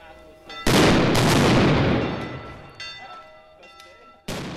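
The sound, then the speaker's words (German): Booming ceremonial black-powder salute shots (Böllerschüsse) fired at the traditional Banntag in Liestal, Basel-Landschaft, Switzerland: one very loud blast with a long rumbling decay, then several quieter reports at uneven intervals, with steady tonal background sound throughout. “Und diese Böllerschüsse gehen heute im Baselbieter Kantonsparlament zu reden.”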